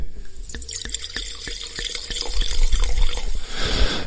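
Wine from a screw-cap bottle, a Breganze Vespaiolo DOC 2019 from Veneto, pours into a glass in a series of quick glugs and splashes, then turns into a steadier, fuller stream that ends in a soft trickle.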